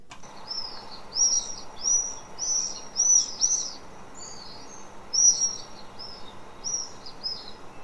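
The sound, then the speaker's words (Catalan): Common swifts give shrill, high screaming calls in a rapid series of short bursts. Several birds sound at varying distances over a faint background hum, with no one talking. “I ara, com l'heu pogut sentir, suposo que us sonarà la majoria perquè és molt habitual en ciutats, sobretot matins i vespres, potser més vespres fins i tot, que són els falciots, falciot negre.”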